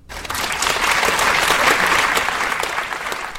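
A steady burst of audience applause at the end of a two-day international symposium, Freie Szene, freie Kunst soziale Gerechtigkeit, many hands clapping densely and evenly at a fairly loud level, rising quickly and holding for a few seconds before easing slightly at the end.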